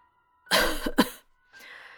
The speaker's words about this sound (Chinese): 重点是我爷爷接下来说的。我爷爷咳嗽了两下